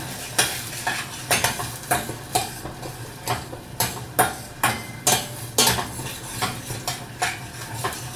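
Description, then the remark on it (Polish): Onions sizzling in hot fat, stirred so they turn evenly translucent rather than golden brown, as a utensil scrapes and clinks against the pan in a steady, repeated rhythm of about two strokes per second over a constant hiss. “mieszam cebulę, żeby cała była jednakowo zeszklona i żeby nie przybierało mi dobra w żadnym miejscu.”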